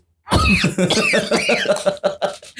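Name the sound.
cough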